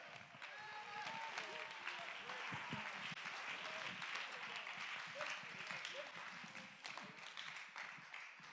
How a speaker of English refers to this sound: Come on, clap your hands. Get into the Holy Ghost. Somebody praise Him.